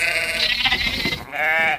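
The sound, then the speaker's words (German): Dike sheep bleat loudly on a dike in Dornum, one long wavering call followed by another starting near the end, with no talking over them. “Das sind unsere Deichschafe, die da blüten.”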